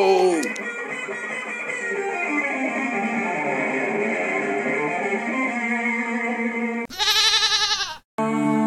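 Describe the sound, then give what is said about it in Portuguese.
A sheep bleats loudly, a long quavering cry followed by a couple of shorter, sharply wavering bleats near the end. “Vai, carneirinho!”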